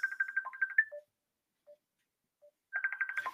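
A telephone ringing as a call is placed again: two bursts of rapid, trilling electronic beeps, separated by a quiet pause that holds only a couple of faint short blips. No one speaks.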